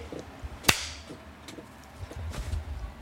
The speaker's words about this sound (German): Es wird wieder in die Hände geklatscht.